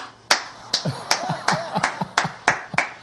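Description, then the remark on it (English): Hand clapping, about eight sharp, loud claps at a steady, even pace, roughly two or three per second, with no talking between them. “I think we'll go for 14 claps per second.”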